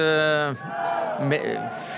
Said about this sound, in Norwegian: Ja, dette er litt som å være på fotballkamp, kanskje. Det er eh, den ene svingen som eh, roper, og så svarer eh, den andre. Og de som eh, roper bak meg her nå, det er de som eh, ikke vil ha noe brexit